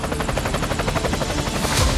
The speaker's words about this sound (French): la montagne est vaste, l'architecture des lieux complexe, on fait appel à l'hélicoptère.